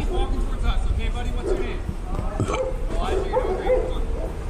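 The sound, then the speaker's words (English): A police officer burps loudly right into his body camera, a few rough, guttural belches over steady background noise and muffled commotion. “This cop is burping right into his body camera.”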